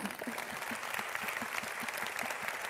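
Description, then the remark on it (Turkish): An audience applauds steadily, a dense wash of many hands clapping at an even level throughout, with no voices rising above it. “Ben çok önemli e, bir alkış istiyorum sizden.”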